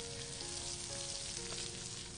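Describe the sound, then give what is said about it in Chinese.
Steady, dense sizzling of shrimp, coated with flour on one side and white sesame on the other, frying flour-side down in a little hot oil in a pan, a continuous hiss with faint crackles and a few soft pops, with no voices. “锅里少倒点油，烧热后，把虾子沾着面粉的一面放下去”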